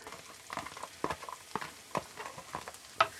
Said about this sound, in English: I don't want to brown this butter. I'm not I'm not sauteing these mushrooms. I'm just cooking them real slow.